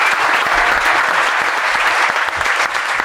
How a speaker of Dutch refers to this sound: Dus ik wil dat jullie me keihard applaus gaan geven. Begin maar met klappen